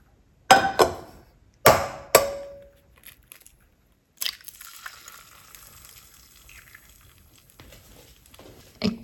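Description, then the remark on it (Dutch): Several sharp taps of an egg being cracked, a brief ringing tone, then a steady hissing sizzle as the egg fries in a hot pan rubbed with oil, with a few small clicks near the end. “Ik ga gewoon een ei bakken.”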